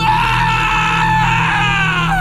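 A man's loud, sustained scream, high and strained with a slight downward bend at the end, intense with no talking, let out as he runs down stairs on seeing a woman's backward-turned feet.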